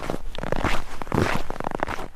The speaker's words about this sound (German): dieses Knirschen, darauf freuen wir uns doch alle. Dick eingepackt durch eine weiße Schneelandschaft tapsen.